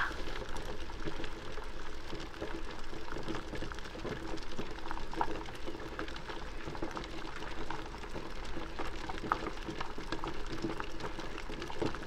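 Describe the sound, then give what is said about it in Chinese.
A pot of water that has just come to a boil, at a rolling boil, bubbling and gurgling steadily with a dense, continuous churn and scattered small pops, with no voices over it. “那是一锅刚烧开的水，咕噜咕噜，咕噜咕噜，就在你的正前方。”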